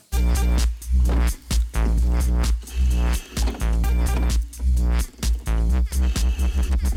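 A loud 1999 French electronic dance track with a heavy, buzzing bass line and punchy beats, the rhythm chopped by brief stops and restarts, with no voices.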